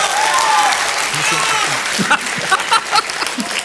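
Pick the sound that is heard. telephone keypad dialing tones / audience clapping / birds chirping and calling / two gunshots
audience clapping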